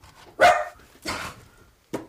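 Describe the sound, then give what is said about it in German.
A terrier named Lewis, in a one-room ground-floor flat, barks three times in quick succession: two loud, sharp yaps followed by a shorter, quicker third bark, with no voices. “Da ist der Terrier Lewis und der fette weiße Kater Devil.”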